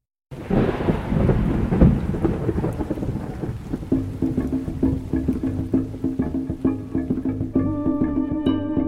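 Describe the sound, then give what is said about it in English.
A thunderstorm rumbles with heavy, rolling thunder over steady rain, loud; later a low sustained tone and faint musical notes rise beneath the storm. “A wailing storm sweeps over Collinwood and Maljardin two cursed dwellings about to plunge further into darkness”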